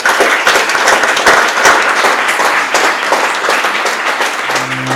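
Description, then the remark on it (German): Sustained audience applause, a dense, steady patter of many hands clapping for several seconds, with a low hum creeping in at the very end. “Applaus”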